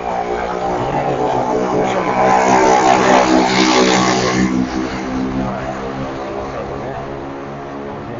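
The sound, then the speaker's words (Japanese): A loud moped engine drones past, its buzzing pitch rising as it approaches, peaking mid-clip, then fading away as it recedes; a brief voiced filler is heard near the start. “こが通りましたこれねあのだいぶ音の大きかった原付なんですけど”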